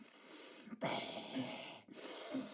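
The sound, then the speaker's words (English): A voice imitates an old piano teacher's wheezy, laboured breathing over a pupil's shoulder: long, raspy inhales and exhales in a slow rhythm, fairly loud, with short pauses between them. “The woman was so old, and she couldn't breathe properly. So you should just sit behind me, going.”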